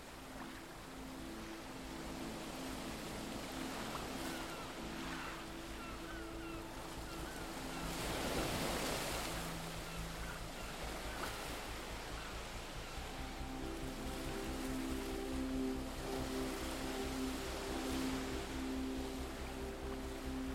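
Steady surf washes continuously onto the shore of a deserted beach, with one broader wave surging and breaking midway, over a low, constant rumble and a faint hum of motor or wind.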